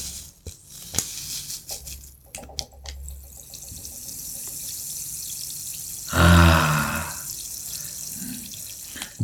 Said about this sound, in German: Ich bereite uns aber erst noch mal was vor. Okay. Wasser.